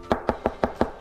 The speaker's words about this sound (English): there was another knock at the door.